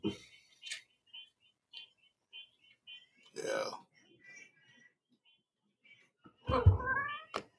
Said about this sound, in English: I don't know if y'all can hear my cat.